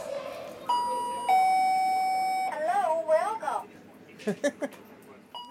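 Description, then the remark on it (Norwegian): The door chime of a knife shop at the Palais Royal rings two electronic notes, the second lower, each ringing on for a moment before voices start talking in the shop. “Og blir tatt imot av ei hyggelig kvinne og en veldig irriterende kundevarsler.”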